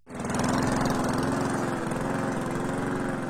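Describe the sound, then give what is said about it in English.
A lawn mower engine runs steadily in spring yard work, a loud, continuous drone with a rough mechanical buzz that holds even for the whole few seconds, with no talking. “Lawnmower, weed eaters, blowers, noise constantly.”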